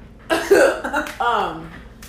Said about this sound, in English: oh god, she's choking.